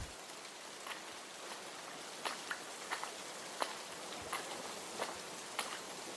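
Steady rain hisses evenly throughout, with scattered drops pattering sharply on a surface every second or so. No voices, just a soft, continuous downpour.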